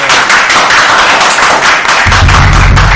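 A crowd applauds loudly and steadily, a dense wash of many hands clapping that swells with a deeper rumble toward the end.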